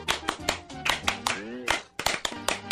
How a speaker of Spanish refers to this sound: ¡Aplaudir! ¡Aplaudir! ¡Todo el mundo va a aplaudir!